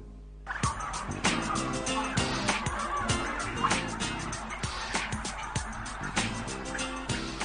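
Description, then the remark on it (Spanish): A large flock of turkeys on a turkey farm gobbles continuously, overlapping calls forming a dense, rattling chorus with sharp bursts popping out throughout, loud, over a steady low hum. “La granja de pavos es al día de acción de gracias lo que el Polo Norte a la Navidad.”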